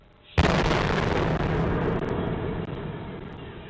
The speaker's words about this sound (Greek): Σε κάμερα ασφαλεία περιπτέρου στην οδό στα δύο αποτυπώνεται και ο εκοφαντικό θόρυβο από την έκρηξη. Ήμασταν εδώ λίγα περίπου 100 μέτρα παρακάτω και ακούστηκε πολύ καθαρά.